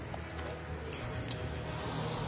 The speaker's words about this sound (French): Belle voiture là, ça ronronne ça. Hein. Ronronne la Audi là.